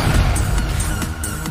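A dense barrage of game explosions: repeated sharp blasts land every fraction of a second over a constant low, booming rumble, loud, with no voices.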